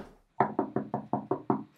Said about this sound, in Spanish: Creo que están tocando la puerta.